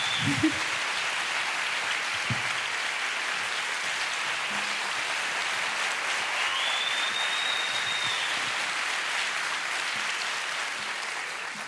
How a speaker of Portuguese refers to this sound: Uma salva de palmas para Joana Marques.